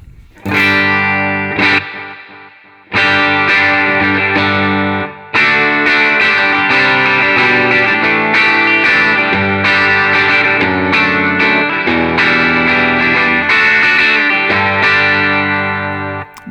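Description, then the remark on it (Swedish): An electric guitar, likened to a more muscular Telecaster, played with a clean tone rings out sustained, loud chords on its own, broken by two brief pauses early on before a long stretch of continuous strumming. “Hur låter den här rackaren rent då? Har vi något ljud i den? Det har vi.”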